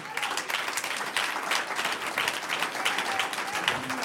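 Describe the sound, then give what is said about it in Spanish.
An audience applauds God steadily, many hands clapping in a dense, continuous patter that stays fairly even in loudness throughout, with faint crowd voices mixed in. “Un aplauso a Él.”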